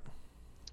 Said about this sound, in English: are you clicking a pin or something oh sorry i'm playing with legos